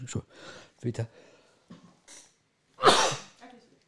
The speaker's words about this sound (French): J'ai pas le Covid, tout va bien donc. Et puis j'ai toussé par là.